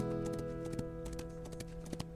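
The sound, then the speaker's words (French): Horse hooves clip-clop in a quick, uneven trot as a hunter rides off on his horse carrying a captured bird, each hoofbeat sharp, over a steady humming tonal backdrop, with no voices. “Le chasseur bondit hors de sa cachette, attache l'oiseau avec une corde et l'emporte sur sa fidèle monture.”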